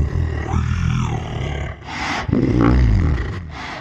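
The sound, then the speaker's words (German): Two giant tortoises mating: loud, deep groaning roars drawn out, broken by breathy rasping gasps between the long, rumbling calls. No one speaks. “Und zwar wurden für die Synchronisation der Drachen ähm, äh, hat man zwei kopulierende Riesenschildkröten aufgenommen.”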